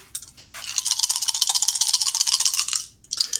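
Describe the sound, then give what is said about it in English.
Challenge dice for a command roll in a tabletop game rattle rapidly in a cupped hand for a couple of seconds, a dense clatter of small clicks, then a brief pause and a short final tumble. No one speaks. “The first time rolling challenge dice on a social thing.”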